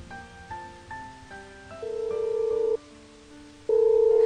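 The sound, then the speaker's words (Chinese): A phone rings on an unanswered call during a stormy night with strong wind and lightning. An electronic melody of steady tones steps between pitches, with two longer, louder buzzing tones near the end. No voices. “你接电话好不好？”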